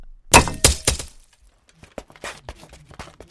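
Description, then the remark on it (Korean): A heavy iron shell, a bigyeok jincheolloe fired by a gunner from outside a fortress, thuds onto the ground in front of a guesthouse inside the fortress held by Japanese troops, in three loud impacts, followed by a scatter of softer knocks and clatters as it settles. No one speaks. “성 밖에서 포수가 비격 진천례를 발포해서 일본군이 점령하고 있던 성 안의 객사 앞들에 뚝 하고 떨어졌는데요.”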